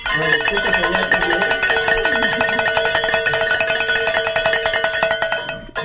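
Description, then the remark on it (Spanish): A bell rung rapidly and without pause for about six seconds to celebrate reaching a goal, a loud, bright, metallic clanging with ringing overtones, while faint voices murmur underneath. “nuestros compañeros allá, allá también en el centro de conferencias que están gritando de alegría porque cada momento que tocamos la campana, que se logró la meta, es un momento de alegría.”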